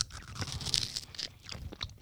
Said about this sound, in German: Ich habe jetzt mal nur die, den Waffelteig abgeknabbert von der einen Seite.